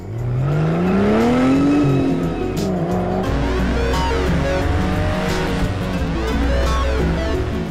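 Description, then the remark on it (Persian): The engine of a stolen 2007 Mercedes-Benz car revs up loudly, its pitch climbing and falling as it accelerates, with tires squealing and skidding briefly in the continuous roar of driving. “We were driving a stolen 2007 Mercedes Benz.”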